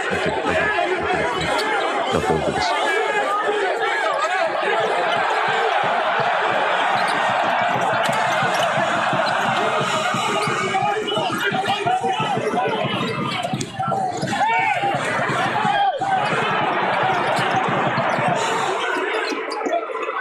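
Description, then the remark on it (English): A basketball thumps repeatedly on a hardwood court during a scuffle at a college basketball game, while a loud, busy crowd chatters and shouts throughout, with scattered laughter and overlapping voices. “There was a little tiff in college basketball.”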